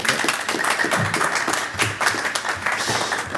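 Sustained audience applause, a dense, steady wash of many hands clapping at an even loudness throughout, with no voices rising above it.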